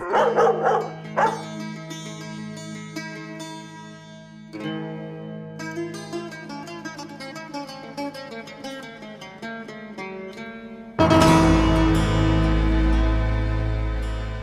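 Dogs bark and yip in quick bursts at first, then give way to drawn-out whining tones, before a loud, noisy rush of sound takes over near the end.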